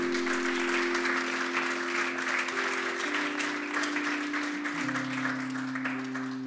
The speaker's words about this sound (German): Come on, die anderen können mal einen Applaus geben.